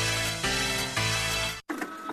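A printer runs with a loud mechanical whir, its motor buzzing in steady passes about every half second before a brief cutoff and a rougher, clattering finish.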